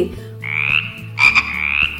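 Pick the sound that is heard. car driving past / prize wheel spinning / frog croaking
frog croaking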